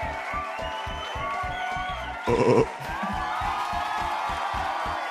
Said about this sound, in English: Listen to that crowd go.